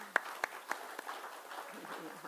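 A brief round of applause for guests invited up to share their story: a handful of sharp, distinct claps in the first second, then thinning out into softer scattered clapping with faint background murmur.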